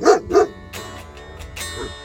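A dog named King gives two sharp, loud barks in quick succession, followed by quieter scuffling and rustling noises with no further barking.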